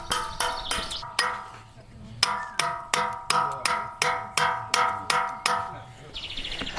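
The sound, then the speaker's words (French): A sculptor's tool strikes a 92-million-year-old stone of very good quality, with no flaws in it, about a dozen times in a steady rhythm, each sharp blow leaving a clear, bell-like ringing tone that fades quickly. There is a short pause partway through. “Alors, elle chante bien la pierre. Hein quand elle sonne comme ça, des fois on dirait une cloche, mais c'est qu'elle est, elle est de très bonne qualité, qu'il n'y a pas de faille dedans, que, voilà, et ça s'entend.”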